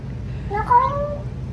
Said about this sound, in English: Listen to this cat. Listen to what it sounds like.